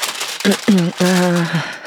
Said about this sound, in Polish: Odpakowuję na grande finale, czyli coś, tak. co jest pod papierem i na tacce.